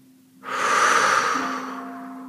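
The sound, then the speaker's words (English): A single deep, airy breath swells in after a quiet moment and slowly eases out, steady, with a faint low hum sustained underneath. “Breathe in Breathe in pure light, pure rainbow light. And release down your pillar.”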